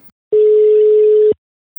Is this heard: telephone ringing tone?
yes